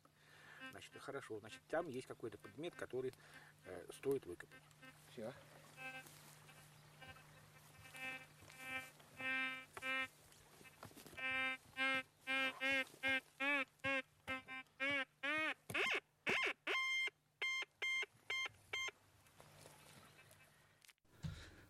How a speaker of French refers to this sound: Lorsque la sonorité des euh, variations devient maximale, il faut commencer à creuser dans la terre. Tu reprends alors le détecteur et s'il transmet un son encore plus intense, tu dois continuer à creuser.